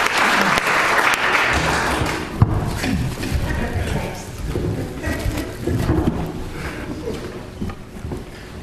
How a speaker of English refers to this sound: I do think he really requires another clap. Please. Thank you. Thank you.